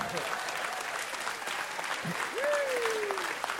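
An audience claps for Jesus during a sermon, a dense, even patter of many hands throughout, with a single drawn-out whoop rising sharply and then sliding slowly downward over the applause near the end.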